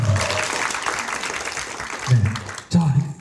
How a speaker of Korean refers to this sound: 다시 한번 감사의 박수.